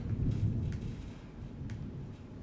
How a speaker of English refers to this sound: For listeners, if you hear that back there, that's not my stomach growling, that's thunder. Just in case you pick it up.